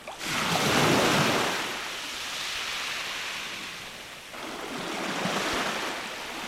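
Ocean waves roll in and wash out at the seaside, a broad hissing surge that swells, eases, then builds again in a steady, fairly loud wash with no voices.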